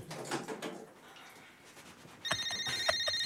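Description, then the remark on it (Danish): After a moment of muffled background noise, a telephone in a stage play starts ringing with a bright electronic warble that pulses steadily and clearly, continuing to the end. “Så, nu ringer Christian.”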